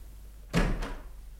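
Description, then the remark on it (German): A door swings open with a short wooden thunk and a brief scraping follow-through, moderately loud, with no voices present. “Als ich gerade das dritte Glas ansetzte, öffnete sich die Tür.”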